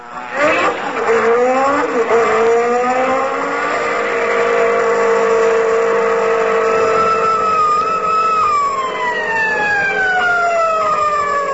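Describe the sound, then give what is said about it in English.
A car engine revs hard and speeds off at 42 miles an hour in a 20 mile zone, its loud whine climbing in pitch through the gears, holding steady, then dropping away near the end. “42 miles an hour in a 20 mile zone.”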